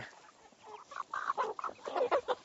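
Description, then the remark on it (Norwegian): Several chickens cluck and murmur inside a coop, short overlapping clucks rising and falling in bursts, busier toward the end, with no talking. “Og hvis jeg finner ut at det er flere høns her inne som viser seg å være hane, så får jeg bare hive de inn.”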